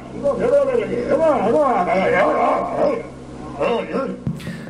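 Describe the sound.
A seal imitating human speech, saying "Get out of there, come over here": hoarse, gravelly voice-like phrases with rising and falling pitch, fairly loud over a steady low hum of an old recording.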